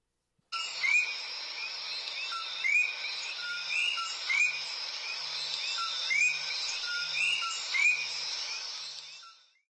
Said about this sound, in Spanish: para beneficio de aquellos de ustedes que nunca hayan escuchado un coquí, yo le voy a poner uno porque casualmente es el ringtone de mi teléfono. Escuchen cómo suena un coquí.